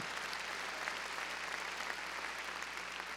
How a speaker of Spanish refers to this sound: A ver, démosle palmas fuertes a nuestro Señor.